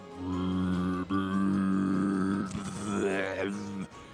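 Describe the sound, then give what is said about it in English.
A voice imitates an enormous burping frog croak as a mass of gas is expelled from a swollen toad: a deep, sustained guttural groan with a brief catch, then a rougher, raspier stretch before trailing off. It is loud, with no other sounds. “like an enormous burping frog croak as this mass of gas is expelled from Sapius.”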